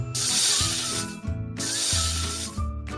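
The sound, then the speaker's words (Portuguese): An angry snake hisses twice, each hiss a long, loud, breathy burst lasting about a second, with a brief pause between, over steady low musical tones. “Dentre a espessura da silva, enquanto as roscas desdobra, zangada que faz a cobra? Silva.”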